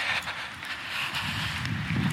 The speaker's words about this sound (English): Let me jump in here because the wind was a little much to hear these reflections recorded whilst I walk, and so let me add them now instead